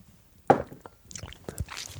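A short, sharp knock, like a glass being picked up, is followed by soft wet mouth sounds and a couple of quiet swallowing clicks as someone takes a sip. No one speaks.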